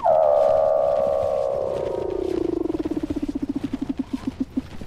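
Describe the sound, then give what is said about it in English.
A Weddell seal call: one long whistle that glides steadily downward in pitch, then breaks into a fast pulsing trill that slows and fades over several seconds. No voices, just the call. “Weddell seals trill, chirp, whistle, and buzz.”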